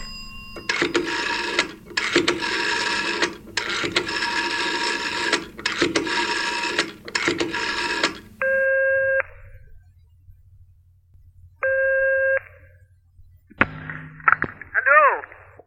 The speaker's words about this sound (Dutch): Hoewel het alweer 39 jaar geleden is, ken ik haar telefoonnummer nog uit mijn hoofd. Zou ik het voor de aardigheid eens draaien?